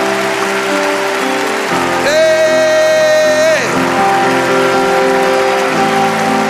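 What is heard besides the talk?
audience applause and cheering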